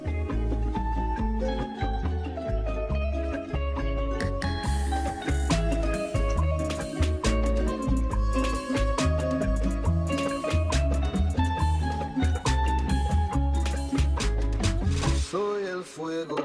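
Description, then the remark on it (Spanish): An upbeat song played on air plays loud and steady, with a driving bass beat and layered melodic instruments, no talking, and the rhythm shifts briefly near the end. “te voy a poner una rola este, más o menos sabrosona”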